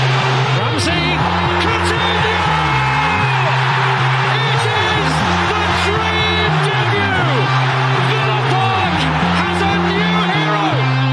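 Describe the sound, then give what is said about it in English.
A packed football stadium crowd roars and cheers loudly and continuously after a headed goal, with a repeating low chant-like swell running beneath the dense wash of voices. “That's a big clap, mate.”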